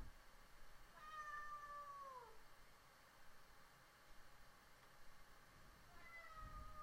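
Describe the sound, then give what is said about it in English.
A cat meows twice, a drawn-out, falling cry followed several seconds later by a shorter one, quiet over a steady background hiss. “In just a second, we're going to go ahead and let the kitty out.”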